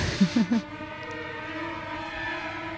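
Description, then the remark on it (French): Eerie soundtrack music from the psychological horror film Shining: three short low pulses open onto a steady, ominous droning chord of sustained tones that hangs unchanged at moderate volume, with no voices. “C'est effectivement Shining, euh, film d'horreur psychologique.”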